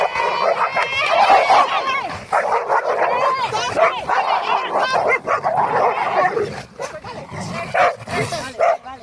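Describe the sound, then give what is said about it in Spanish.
Two dogs, Thor, a male, and Sugar, a black female, bark, yip and snarl at each other in a frantic scuffle during a walk with other dogs in the countryside, with overlapping bursts and whines running almost nonstop for several seconds. “Un marcaje es un aviso, una discusión es ya cuando los dos perros se ponen.”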